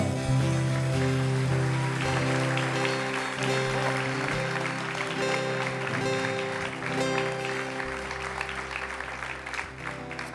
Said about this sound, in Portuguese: Aplauda o nome do Senhor.